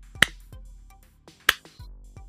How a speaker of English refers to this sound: You were correct. Well done. You get a slow clap.